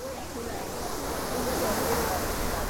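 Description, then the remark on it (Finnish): Steady rushing and splashing of the Trevi Fountain's water in Rome's historic centre fills the scene, with faint gull cries rising above it now and then; only a handful of people are around, the city quieted by the virus. “Hiljaisuutta leikkaavat suihkulähteen veden lorina ja lokkien kirkaisut.”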